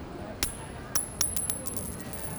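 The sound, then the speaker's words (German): A coin is flipped up and left to fall onto a hard floor, bouncing several times in quick succession, each impact giving off a bright, high metallic ring, with faint crowd noise in the background. “Ich werfe sie hoch, ich flippe sie fange sie nicht auf, drehe sie nicht um, ich lasse sie auf den Boden fallen.”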